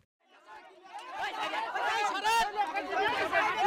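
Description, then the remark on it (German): A dense crowd of overlapping voices chatters and calls out at once at the site of the collapsed Rana Plaza building on the day of the disaster, 24 April 2013, rising from quiet to a steady, loud hubbub with scattered louder shouts, no single voice standing out. “im Hintergrund hören wir Tonaufnahmen vom Tag dieser Katastrophe, nachdem das Gebäude, das Rana Plaza Gebäude zusammengestürzt ist.”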